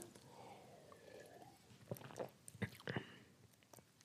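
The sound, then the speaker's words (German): Someone takes a quiet sip of water, with a few soft, wet mouth clicks and swallows clustered in the middle against a faint, steady background. “So, ein Schluck Wasser.”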